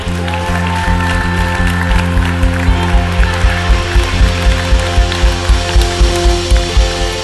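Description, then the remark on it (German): An audience at a church service applauds the preacher, settling into steady rhythmic clapping over sustained background music that hums underneath throughout; no one speaks. “Vielen, vielen Dank für dieses warme Willkommen.”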